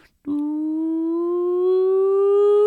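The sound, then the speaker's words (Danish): A steady alarm siren tone, a decoy alarm meant to sound when a decoy comes marching, begins after a brief pause and holds continuously, its pitch creeping slowly upward while it grows a little louder toward the end. No one speaks. “Du ved, sådan, altså, så der var kom, så når der kom sådan en decoy marcherende, ikke, så kunne man høre sådan en lyd, der langsomt blev skruet op.”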